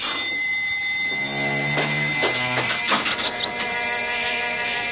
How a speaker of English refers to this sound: And then the bell once more breaks out into an impatient clamor.